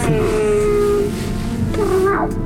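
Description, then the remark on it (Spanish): A cat lets out loud, drawn-out meows up close, a long wavering yowl followed by another after a brief pause, with no voices present. “Y amaulló el gato tres veces.”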